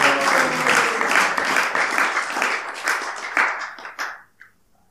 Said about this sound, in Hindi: आप सभी भक्तों का हार्दिक अभिनंदन है स्वागत है विशेष रूप से सभी बालकों का तालियों के साथ स्वागत है